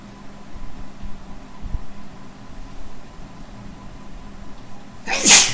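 A single sharp, loud sneeze bursts out near the end, after several seconds of low background hum and faint background noise.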